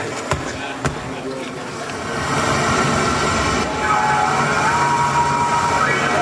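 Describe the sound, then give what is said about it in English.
Sea waves wash in a steady, broad hiss that swells louder partway through, with a couple of sharp clicks near the start and faint tones drifting underneath, as the opening of a rock and roll album. “Once we had the sea noise going, we just introduced each theme of the four themes.”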